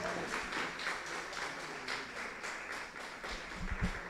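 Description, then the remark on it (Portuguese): An audience, standing, applauds the Lord Jesus at Christmas, a steady wash of many hands clapping with no pauses, moderately loud, with a few low thumps near the end and no one speaking. “Fica de pé nesse momento, aplauda o Senhor Jesus.”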